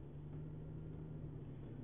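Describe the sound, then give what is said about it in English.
Steady low rumble of car traffic in the background, a constant engine-like drone with a faint hum, nobody speaking over it. “I know I'm not recording this from my quote unquote studio, meaning my office, so you, know, you hear some of this car noise in the background and whatnot.”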